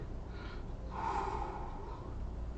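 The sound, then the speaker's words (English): A single harsh, breathy vocal burst, a person imitating a buzzer to signal an official question in a game, swells for about a second over a faint low hum, with no words spoken. “Um, for me, I think uh, um, my buzzer sound will be.”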